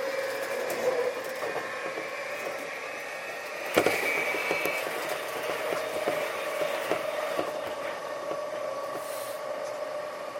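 A JR 323 series electric train runs steadily on a Momodani to Momodani loop, arriving at Morinomiya Station, with a sustained motor whine and rolling rumble, tonal hums holding level, plus a brief clatter near the middle; no voices.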